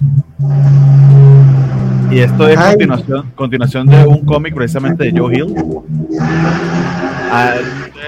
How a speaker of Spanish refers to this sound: está pasando un carro cerca allí de, uno de nosotros.